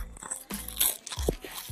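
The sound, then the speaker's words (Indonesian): Crisp kerupuk crackers, not soggy, being bitten and chewed, with a quick series of sharp, dry crunches and crackles bursting irregularly through a short stretch of eating noise, no talking. “Iki mau kernyos kernyos kernyos Kerupuk gak melempem”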